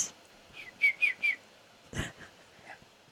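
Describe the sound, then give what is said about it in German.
A person whistles a quick series of short, high chirps imitating a bird, three clear bright notes followed by a soft click and a few fainter tweets, fairly quiet. “Eine Katze miaut oder faucht, ein Hund bellt und ein Vogel, der zwitschert.”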